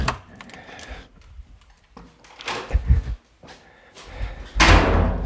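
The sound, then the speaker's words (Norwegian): A door in a library is opened and shut with a few sharp knocks and a loud thud near the end, with faint handling clatter in between and no voices. “Da er det fire dører jeg skal gjennom.”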